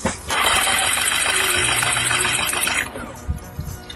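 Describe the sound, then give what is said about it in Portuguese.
A boat engine cranks over loudly and steadily for about two and a half seconds without catching during a compression test of its cylinders, then the starter stops, leaving a few faint clicks and knocks. “Vamos medir cada cilindro agora e comparar.”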